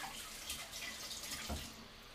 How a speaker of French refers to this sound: Ok Dans la cuisine, je lave les assiettes, les couteaux, les casseroles dans l'évier.